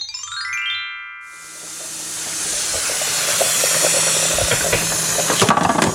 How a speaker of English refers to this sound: that is the sound of mashed potato cooking.